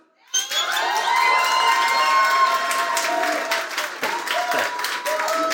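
A crowd bursts into loud cheering and applause for the interviewer, high shouts and whoops riding over steady clapping that holds strong for about five seconds after an abrupt start.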